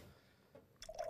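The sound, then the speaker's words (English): A cold Belching Beaver Phantom Bride India Pale Ale is opened with a quick hiss, followed by a brief gurgle of liquid pouring. It's quiet, with no one talking. “But um, so with that being said, we're gonna crack open a cold one.”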